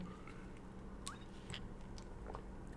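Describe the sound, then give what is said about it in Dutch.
Someone takes a few quiet sips of water, with soft wet mouth clicks and a swallow over a low, steady background hum. No one speaks. “Ik neem even een slokje water.”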